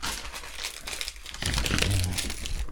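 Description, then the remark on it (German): Paper rustles and crinkles in a steady run of dry, crackling handling noise, growing louder and busier partway through, with no voices. “Wo ist das Papier und die Stifte? Stifte und Papier. Hier.”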